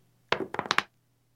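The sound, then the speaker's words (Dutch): A dice-rolling app plays a quick clatter of two dice tumbling across a hard surface, five or six rapid knocks in about half a second, crisp, then silence. No one speaks. “Dus 1, 2, 3 komen die dobbelsteentjes”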